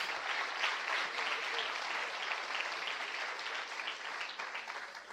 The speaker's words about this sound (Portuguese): Dê um aplauso ao Senhor Jesus. Glória a Deus.